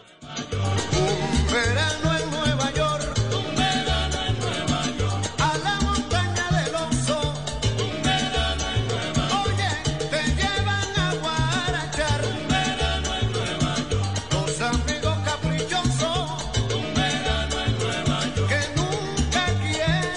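A salsa song plays loud and continuous, with a driving, syncopated bass pattern under bright horns and percussion, full band sound with no talking throughout.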